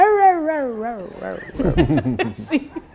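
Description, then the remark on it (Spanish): A person imitates a dog, talking 'in dog mode' to their dog Kiara, opening with a long wavering howl, then breaking into a quick run of yelping, bark-like yips, fairly loud. “En modo perruno.”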